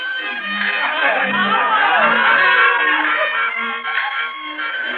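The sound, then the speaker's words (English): A busy carnival midway crowd fills the air with a steady wash of overlapping chatter, ceaseless calls along the midway and occasional raised voices, loud and unbroken for the whole stretch. “the ceaseless calls of archers along the midway, all the garish life and color of a carnival”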